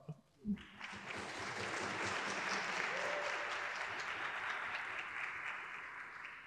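A sustained burst of audience applause, dense and steady clapping that starts abruptly after a couple of brief sounds and continues loudly for several seconds before thinning slightly at the end.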